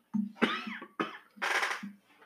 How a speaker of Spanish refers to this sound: perdón por la tos de nuevo